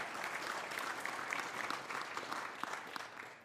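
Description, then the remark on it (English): An audience applauds itself for paying for a church roof, many hands clapping in a dense, even patter that holds for a few seconds before easing slightly at the end, with no voices rising above it. “You did, yeah, you, you applaud.”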